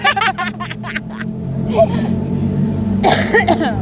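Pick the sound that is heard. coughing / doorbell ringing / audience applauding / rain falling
coughing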